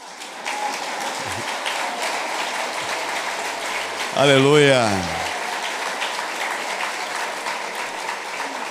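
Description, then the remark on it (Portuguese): A church audience claps steadily for the single people present in a dense, continuous wash of applause, while a man's voice briefly laughs and calls out over it midway through. “Vamos dar uma salva de palmas para os solteiros aqui, né?”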